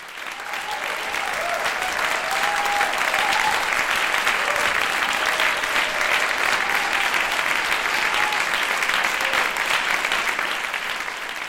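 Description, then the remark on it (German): Sustained, dense applause from a theatre audience at the end of a performance, a steady loud wash of many hands clapping with faint murmurs of voices mixed in. “Der Schlussapplaus lässt uns aber stark vermuten, dass allen Beteiligten hier ein großer Erfolg gelungen sein muss.”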